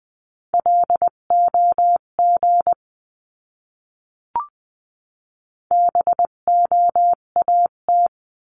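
A Morse code word from a word practice lesson at roughly 16 to 20 words per minute: a steady mid-pitched tone keyed into quick dots and dashes, two bursts separated by a pause with a single soft click between.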